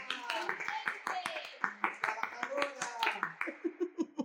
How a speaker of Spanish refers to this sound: ¡Ole! ¡Aplausos!